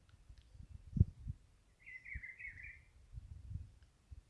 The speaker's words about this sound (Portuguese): Ó, escuta os passarinhos.